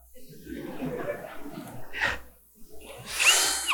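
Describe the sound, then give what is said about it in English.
A power drill whirs in short bursts, with a brief burst near the middle and a louder, higher-pitched run at the end, while a person talks in between. “If I try to use the drill the wrong way, all I get is a bunch of heat and smoke.”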